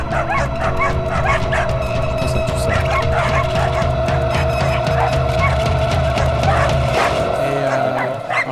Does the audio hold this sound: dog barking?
yes